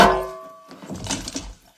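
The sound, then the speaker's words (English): In a film scene, a frying pan strikes a man with a single loud smack, a sharp metallic hit whose bright ringing tone fades over about half a second, followed by a brief burst of rustling, scuffling noise. “You, you use language like that, you deserve to get slapped with a frying pan at the very least.”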